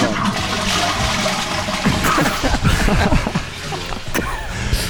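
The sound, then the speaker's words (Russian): A toilet flushes with a steady rushing, gurgling wash of water lasting several seconds, fairly loud, while faint voices and a bit of laughter come through underneath. “А туалет закрой ты вообще там. Я слышу уже такое, знаете.”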